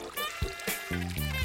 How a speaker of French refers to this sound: Une rivière en Ardèche.